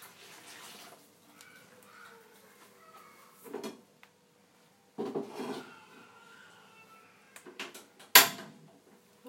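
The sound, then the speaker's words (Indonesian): A wok is lifted off a stovetop and swapped for another wok: several scattered metallic clunks and scrapes, ending in one sharp, bright clank, against a quiet background. “terus mau angkat wajannya dulu kita tukar wajan”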